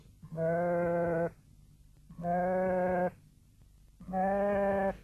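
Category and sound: animal, sheep bleating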